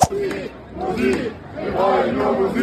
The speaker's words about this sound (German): Ja, so klang's gestern vor dem Braunschweiger Rathaus. Dort haben hunderte Jugendliche gegen eine neue Grünflächenverordnung, so heißt es, der Stadt demonstriert.